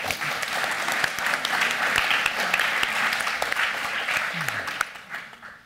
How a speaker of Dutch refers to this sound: En eh, ja, mag ik alvast een hartelijk applaus voor deze dappere cast.